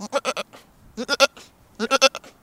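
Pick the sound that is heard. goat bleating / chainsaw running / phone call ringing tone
goat bleating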